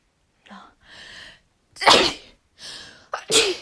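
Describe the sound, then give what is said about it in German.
Two loud sneezes, each preceded by quick, gasping in-breaths, with the second sneeze coming in a sharp double burst. No talking. “Es regt so auf, dass ich immer in meinen Podcast hinein niesen muss.”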